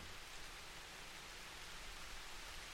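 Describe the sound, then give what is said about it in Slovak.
Steady, soft rain falling in a continuous, even hiss with no distinct drops standing out. It is fairly quiet and unchanging throughout, with no voices. “V pozadí môžeš počúvať zvuky dažďa”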